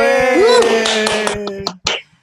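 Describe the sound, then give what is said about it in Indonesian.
Several scattered hand claps, sharp and irregular, as an audience applauds to welcome a guest star on a show, over a sustained tonal voice or music, with a final louder burst of clapping before it fades out. “Tepuk tangan dulu dong.”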